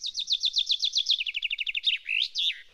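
chaffinch song

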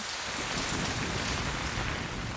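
rain falling on surfaces

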